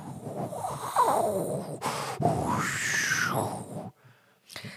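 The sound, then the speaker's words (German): A voice imitates howling storm wind with breathy, rushing whooshes and rising, falling groans, sustained for several seconds before dropping off, then a short gust at the end. “Ich kann auch Wirbelsturm, kann ich. Ich bin so eine Art Geräuschemacher.”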